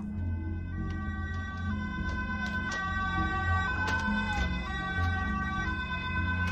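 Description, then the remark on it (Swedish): Several police sirens of arriving reinforcements wail and overlap, their tones shifting and echoing across an open area over a low background rumble, with no voices. “Eko från politisirenene hörs över området när förstärkningarna ankommer.”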